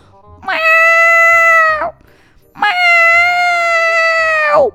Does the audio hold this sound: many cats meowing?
yes